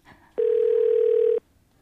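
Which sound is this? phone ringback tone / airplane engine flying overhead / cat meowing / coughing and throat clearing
phone ringback tone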